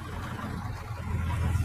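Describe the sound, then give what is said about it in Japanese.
A car rumbles past on a street, its low engine and tire noise swelling steadily louder over a couple of seconds, with no voices. “車がうるさいかもなんだけど”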